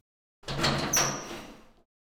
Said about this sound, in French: La porte de ta cellule s'ouvre.